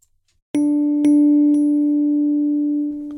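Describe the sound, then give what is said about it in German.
A synthesized bell-like note rings out, then repeats twice at even half-second intervals as MIDI echoes, three sounds in all: the original and two echoes, each attack blending into one sustained, clear tone that fades near the end. No voices. “Wir hören ja insgesamt dreimal den Sound. Das erste ist das Original und dann haben wir zwei Echos kann ich jetzt einstellen bis auf 16.”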